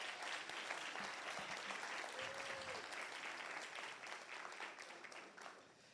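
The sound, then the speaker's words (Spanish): An audience at a sermon gives a loud round of applause to Jesus, clapping steadily for several seconds, a dense, continuous wash of many hands with no pauses, and a faint whistle-like tone briefly rising through the middle. “Vamos, denle un aplauso fuerte a Jesús.”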